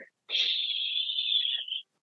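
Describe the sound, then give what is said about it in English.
A single long, steady breath pushed out through the mouth, fairly loud, with a breathy hiss lasting about a second and a half before cutting off, demonstrating an exhale with the mouth in a different position during a breathing exercise. “Okay, I want to focus on breathing with your mouth in a different position, okay, where you inhale and maybe you exhale”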